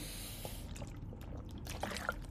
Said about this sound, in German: Ich nehme jetzt mal kurz einen Schluck Wasser, dann könnt ihr das mal hier kurz machen.